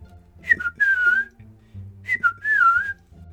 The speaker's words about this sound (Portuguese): De repente, do nada, ele assobiava e deixava quem estava passando por lá morrendo de medo.